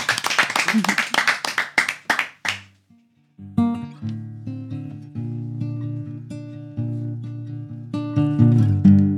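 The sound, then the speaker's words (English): A short burst of audience applause into the microphone for a broadcast on 100.5 FM, a few people clapping in a quick patter that fades after a couple of seconds, followed by music with sustained tones. “Et c'est une exclusivité, donc s'il vous plaît, on peut peut-être applaudir si jamais ça s'entend dans le micro.”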